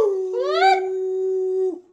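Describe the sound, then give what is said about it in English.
A single wolf howl, clear, sliding upward at the start and then holding a long, steady mournful note before dropping off abruptly after about two seconds. “Quick, quick wolf.”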